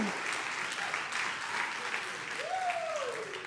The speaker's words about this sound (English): if you're excited to be in church this morning make some noise Woo!